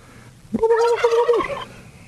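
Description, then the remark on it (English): A turkey gobbling sound effect: a single loud, rapid, warbling burst lasting about a second, clear with no talking over it. “I talk to my own sound effects.”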